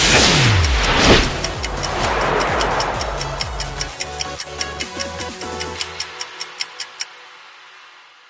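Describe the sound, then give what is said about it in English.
A steady, crisp clock ticking at about two ticks per second, entering after a brief engine-like whoosh and then continuing clearly and prominently on its own before stopping abruptly. “Are you ready? Because the clock starts now.”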